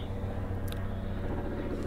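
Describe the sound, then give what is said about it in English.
A helicopter drones steadily overhead, a continuous low rumbling engine and rotor noise that holds at an even, fairly loud level throughout, with no voices. “It's a, it's a helicopter.”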